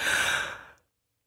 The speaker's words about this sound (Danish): undskyld, jeg skal lige gabe.